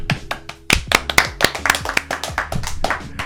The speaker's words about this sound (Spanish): Un aplauso para el episodio 12 del Drone Podcast.